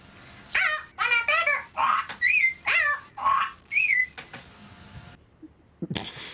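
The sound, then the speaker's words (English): A person mimics a parrot with a quick run of about eight shrill, squawking chirps, fairly loud, ending with a short burst of noise. “and parrot.”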